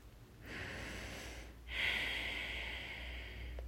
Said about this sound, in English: And take a very deep breath, inhaling the energy of the sun. As you take this deep inhale, imagine the energy of ideas and inspiration as little specks of light floating around you, glittering as they catch the sun rays.